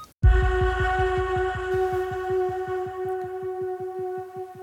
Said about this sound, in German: Ich finde, das Piepen sollten wir noch den Leuten so ein bisschen geben. Piep, piep.